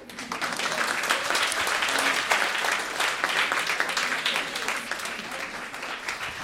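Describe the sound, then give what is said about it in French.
An audience in the hall applauds the show's supporters steadily for several seconds, a dense, even wash of many hands clapping at a fairly loud level that eases off slightly toward the end. “Et eh non, ils sont dans la salle, on va les applaudir.”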